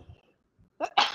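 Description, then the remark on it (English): A single sharp sneeze bursts out, a short intake followed by an explosive, breathy burst lasting about half a second, with a faint murmur beforehand. “Bless you.”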